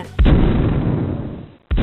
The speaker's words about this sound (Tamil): மிகச்சரியாக மதியம் மூன்று முப்பது மணிக்கு மும்பையின் செயின்ட் ஜார்ஜ் கோட்டையில் இருந்த பீரங்கிகள் முழங்கின